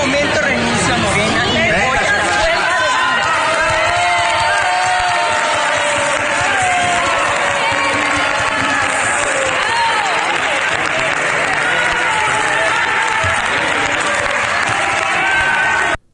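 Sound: applause and cheering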